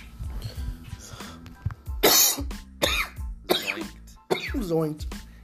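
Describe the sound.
A few seconds of low voices give way to a run of four harsh, hacking coughs, loud, coming in quick succession with brief gasping pauses between them, after someone takes a hit (a rip) while smoking.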